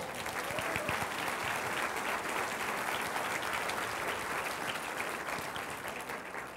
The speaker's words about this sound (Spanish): Dele un aplauso a Jesucristo.